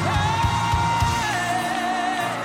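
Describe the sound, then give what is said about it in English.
An audience shouts and whoops loudly while clapping to encourage people coming forward, with sustained raised voices blending into a dense roar and a few sharp claps standing out early on. “Shout and clap, encourage them.”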